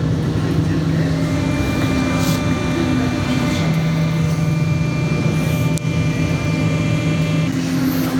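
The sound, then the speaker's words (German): The Pisa Mover, a people mover train in Pisa, arrives with a steady, loud rumble and a humming electric whine whose tones shift in pitch as it pulls in, with a brief clunk near the end. “so, da kommt der Pissmover.”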